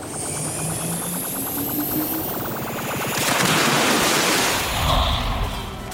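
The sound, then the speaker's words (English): A mechanical whirring hum with rising tones gives way to a loud, steady rush of water pouring back into a pool in a heavy gush, continuing to the end with no talking. “Okay, Robozuki, there's the pool. Go ahead and put the water back.”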